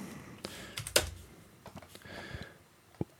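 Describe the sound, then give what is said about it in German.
Irregular keyboard typing with one hand while the other hand holds a coffee, a scattering of sharp key clicks with one louder clack near the start and another near the end, no voices. “Ich kann, ich kann auch leider nicht mit einer Hand tippen, aber bin auf gar keinen Fall bereit, meine andere Hand zu benutzen und den mhm.”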